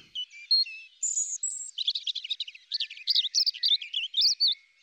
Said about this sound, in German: Eine Ausnahme gibt es da allerdings, das Rotkehlchen. Bei ihnen schmettern auch die Weibchen tolle Arien.